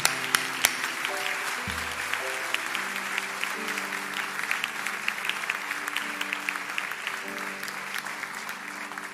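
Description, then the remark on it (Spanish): An audience at a church service applauds to the Lord steadily for several seconds, a dense wash of clapping with a few sharper claps standing out, while sustained musical tones play softly underneath. “Amén hermano, toda la gloria es para el Señor, sí, un aplauso al Señor hermano.”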